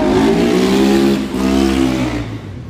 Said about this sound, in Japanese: ごめんなさい隣めっちゃバイクの音うるさかったですね